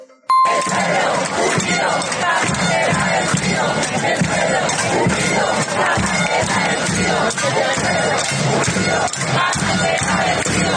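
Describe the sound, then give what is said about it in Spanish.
A large street protest crowd in Buenos Aires, on the second day of mobilizations, roars continuously, shouting and chanting together in a dense, loud wall of voices, with occasional metallic clangs cutting through the din. “Vamos a escuchar parte de lo que se vivió particularmente en Buenos Aires con este segundo día de movilizaciones.”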